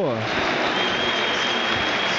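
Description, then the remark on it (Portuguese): A large crowd of Grêmio fans applauds in a steady, dense wash of clapping and cheering that holds loud and even throughout, with a brief voice-like tone sliding down at the very start, at a football match against Santos after the referee ends the game, Santos winning 2–1. “A torcida do Grêmio aplaude.”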